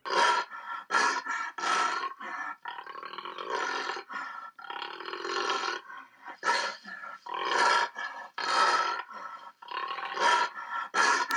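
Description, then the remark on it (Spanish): A jaguar, the only Panthera species living in the Americas, roars and grunts in a series of rough, rasping calls, each a short burst with brief pauses between, loud with no talking. “¡El jaguar! No es una moto prendiendo ni nada por el estilo, es el gran jaguar, la única especie del género pantera que habita en América.”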